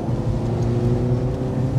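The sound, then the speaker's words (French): The engine of an Alfa rear-wheel-drive sedan, not in dynamic mode, roars loudly and steadily under hard acceleration, a dense throaty drone with strong low harmonics. No voices. “Il attaque. Ah, il est même pas en dynamique en plus.”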